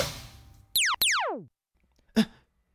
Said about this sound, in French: Son ami en métal vient de péter un boulon brusquement, provoquant l'arrêt tristement logique de son fonctionnement. Sans doute le geste fraternel fut-il un peu trop appuyé.